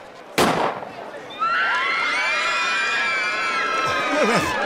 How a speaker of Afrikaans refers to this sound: En die aflosspanne staan gereed. Ons wag nou net vir die skoot om te klap.